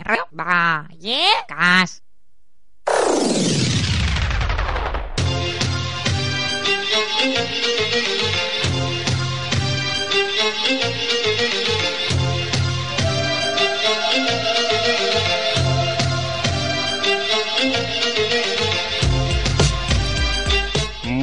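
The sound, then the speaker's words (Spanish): Warbling, quack-like squawks and a falling whoosh lead into a loud, busy Berber-style music jingle that cues a guest's segment on a show. It has steady driving percussion and a layered melody and plays on without talk. “Ya sabes que cuando suenan los bereberes es eh, tu turno de aparecer en escena.”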